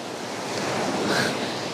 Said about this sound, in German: jetzt bin ich ein bisschen zu nah am Wasser gewesen. Die Wellen nehmen gerade zu. Gerade noch habe ich gesagt, wie ruhig das Meer heute ist. Ich denke, es liegt an der Fähre, die gerade reinkommt.